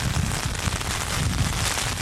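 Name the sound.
rain falling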